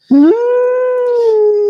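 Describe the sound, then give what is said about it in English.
A person lets out a single loud wolf-like howl, rising quickly in pitch and then holding a long steady note for over a second before dipping slightly at the end, with no talking. “You know what I forgot to do all night? What? Shit for the Wolf Pack, of course.”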